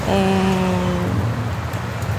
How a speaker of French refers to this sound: Et cet endroit, en vrai, il est nul parce qu'il y a du bruit, il y a de la circulation, il y a toujours 8 millions de touristes et dehors et dedans.